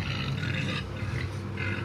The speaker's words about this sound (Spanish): Entonces, escuché otra vez a ese maldito cerdo.